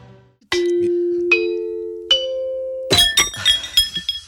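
Three bright chime strikes ring out over a sustained tone, then a quick cascade of shimmering, tinkling chimes tumbles together toward the end, clear with no voices.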